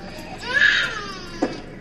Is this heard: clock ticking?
no